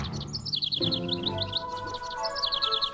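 Rapid, high-pitched chirps from a small bird repeat in quick bursts over a steady backdrop of sustained tones, fairly clear, with no one talking.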